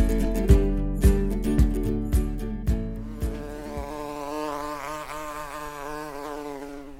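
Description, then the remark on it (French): Bees buzz steadily with a wavering, droning hum, preceded by a series of evenly spaced soft thumps during the first few seconds; no one speaks. “nous partons à la découverte de ces insectes ailés sans lesquels beaucoup de plantes ne pourraient pas se reproduire”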